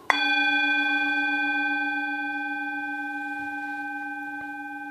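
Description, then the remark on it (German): A single gong stroke with a sharp attack, then a long, steady shimmering ring of layered tones that fades only slightly over several seconds, with no voices. “Und ich lade dich ein, das zuzuhören auf so eine bisschen meditative Weise, setz dich ein bisschen entspannt hin und lass die Worte in dich einsinken, wenn der Gong ertönt.”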